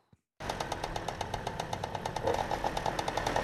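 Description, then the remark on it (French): A two-stroke moped engine in a repair workshop in the Croix-Rousse district of Lyon, France, starts abruptly after a brief silence and runs loud, with a rapid, buzzing, raspy pulse that holds steady throughout. “Ah, le bruit si particulier des moteurs de temps.”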